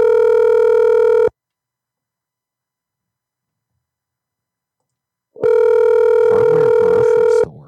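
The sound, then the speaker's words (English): A telephone ringing tone: a steady, buzzy mid-pitched tone sounds for about a second, falls silent for several seconds, then returns with faint warbling sounds layered over it. “We just can't get anybody to pick up.”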